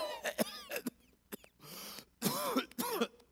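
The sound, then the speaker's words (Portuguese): A voice imitates a fit of harsh, spluttering coughs and throat-clearing, as of someone who nearly drowned and choked on water, short of breath, several bursts in quick succession with raspy breathy gasps between them, fairly loud with no speech. “Tossindo muito, porque engasgado com água, falta de ar.”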